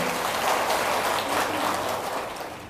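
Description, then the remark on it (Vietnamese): An audience of Buddhist followers at a dharma talk applauds steadily to affirm they can do it, a dense wash of many hands clapping at once, sustained and fairly loud throughout before easing slightly at the end. “tức là vẫn còn đang lo lắng không biết mình làm được hay không nếu vì hết lo lắng thì dân cái một trăm vỗ tay để xác định rằng mình làm được chứ”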